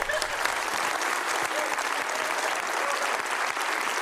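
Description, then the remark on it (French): Steady applause from an audience, a dense wash of many hands clapping at an even loudness throughout, with no voices standing out. “applaudis, ah ouais!”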